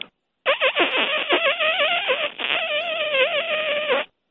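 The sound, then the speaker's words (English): A person vocally imitates a cheetah breaking wind, a continuous four-second stretch of squeaky, wavering, whiny vocal noise, fairly loud, with pitch sliding up and down. “I wouldn't feel right if I didn't ask you to do the cheetah fart”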